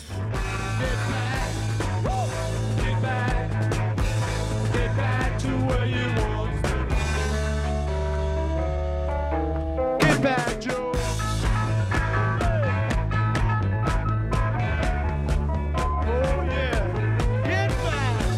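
An electric organ plays through a full rock band recording, with sustained chords over steady drums and bass, loud and continuous, briefly thinning out midway before the whole band crashes back in.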